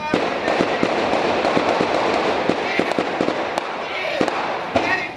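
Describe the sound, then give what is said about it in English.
Rapid gunfire during a police shootout with suspects holed up inside a supermarket on a residential block in Jersey City: dozens of sharp cracks burst in an irregular, steady barrage over a dense wash of background noise, some shots louder than others. “Moments earlier, a hail of gunfire, a shootout between police and suspects holed up inside the building.”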